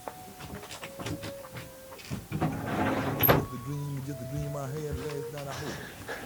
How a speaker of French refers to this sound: Attendez, je vais fermer la porte.